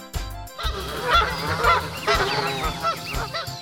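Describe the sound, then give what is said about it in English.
A small flock of geese honks in a busy, overlapping chorus, calls tumbling over one another without pause, loud throughout. “Mama Goose leads baby geese by the reeds.”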